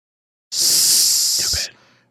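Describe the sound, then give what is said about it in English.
A person makes a loud, sustained hissing 'S' sound like a snake, stressing the letter S, for about a second, ending abruptly with a soft breathy tail. “we're not and we're not we're not being snakes here. The S matters in this week's Hot Read.”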